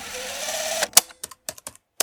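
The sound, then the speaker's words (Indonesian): A short stretch of steady hiss gives way to sharp, irregularly spaced computer keyboard clicks, about seven distinct keystrokes, close and clear with quiet gaps between them. “Gua ini gue bacain salah satu cerpen gue, terus gue kasih efek suara keyboard dari komputer yang uh, eh, gue upload ke Anchor.”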